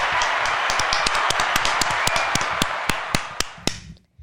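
Applause from a group, dense overlapping claps with sharp individual hits standing out, steady for a few seconds before thinning to a handful of separate claps and stopping.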